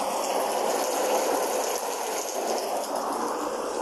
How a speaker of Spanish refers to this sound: Teníamos una tormenta de fondo.